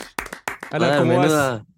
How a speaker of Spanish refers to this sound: Miles de aplausos, miles de aplausos